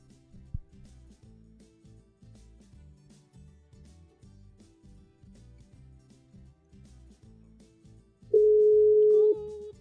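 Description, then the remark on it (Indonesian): A soft, low rhythmic music bed plays, then near the end a loud, steady telephone dial tone sounds for just over a second before cutting off, as a phone call is placed to one more person. “Kita iya. telepon satu orang lagi.”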